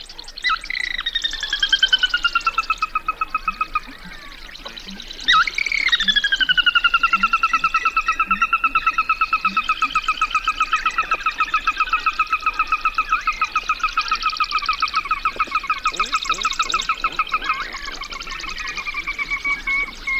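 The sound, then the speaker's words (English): A dense dawn chorus of many birds singing at once one morning near a watering hole on a western prairie: long whistled notes and rapid chirps overlap continuously, with softer rhythmic calls underneath. Fairly loud, with no talking. “Lang Elliott captured these voices one morning near a watering hole on a western prairie”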